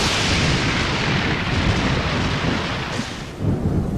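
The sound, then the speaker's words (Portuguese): A loud, sustained thunderstorm fills the whole stretch, with deep rolling thunder rumbling continuously over a dense wash of rain during a bicycle race in São Paulo; no voices. “Com exceção do forte temporal que ocorreu durante a corrida.”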